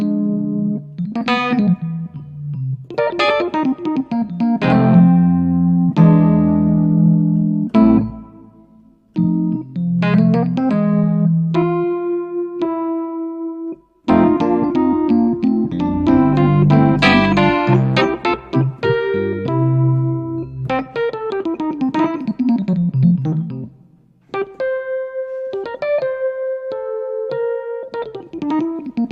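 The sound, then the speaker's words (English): Rhodes suitcase electric piano playing warm, bell-like chords and single melodic notes, sustained and gently decaying, with brief pauses between phrases and no voices over it. “This is, I think this is my favorite Rhodes.”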